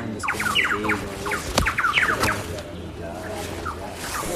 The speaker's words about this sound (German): Und noch lauter. Also auch der, die Soundkulisse, ähm, die man ja so ein bisschen kennt, wenn man auf dem iPhone mal äh, tropischer Regenwald Klingelton abspielt. Ähm, das, war, das war alles in echt.